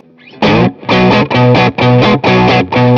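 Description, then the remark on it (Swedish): Electric guitar played through a Tewsky The Holy Grail reverb pedal: six loud, evenly spaced strummed chords in a steady rhythm, each ringing briefly before the next, with no voices. “Ja, det här låter ju jättebra. Ja. The Holy Grail eh, av Tewsky som nu gillade.”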